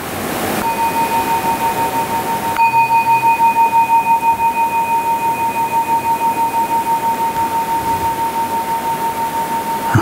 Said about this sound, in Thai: อย่าเพิ่งขยับนะครับ อย่าเพิ่งขยับ เสียงสัญญาณระฆังสองครั้งก็คือ ให้เรา ลืมตาขึ้นนะแล้วก็จะได้เปลี่ยนมาอยู่ในท่าอื่น